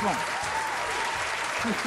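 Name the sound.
applause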